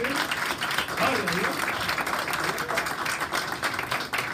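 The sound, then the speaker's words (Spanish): An audience applauds steadily throughout, a dense, loud wash of many hands clapping at once, with a few voices faintly calling out beneath it. “fuerte el aplauso a su fuerte el aplauso”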